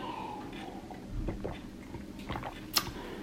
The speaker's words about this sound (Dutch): Ik pak trouwens even tussendoor een slokje water voordat ik heel erg ga hoesten.